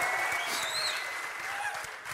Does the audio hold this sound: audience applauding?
yes